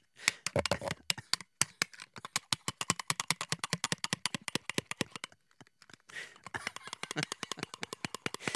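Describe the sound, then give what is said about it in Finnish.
A spoon scrapes and clinks rapidly against a glass dessert bowl, a dense, busy run of sharp taps and scratchy strokes that pauses only briefly before starting again. “Nyt kuuluu sen verran lasinkilinää, että oliskohan se jo puhdas.”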